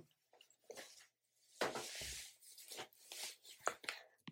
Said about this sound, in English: sorry, I was getting changed. I don't know if that like rustling is really annoying.